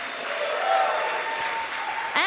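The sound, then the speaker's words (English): A crowd applauds steadily for the members of Faces for Radio Theater, the clapping dense, filling the whole stretch before a voice begins speaking over it at the very end. “Before that, please let's have some applause for this fabulousness.”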